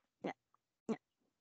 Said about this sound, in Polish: Aha, odgłosy, które pani słyszy w tle, to jest mój pies.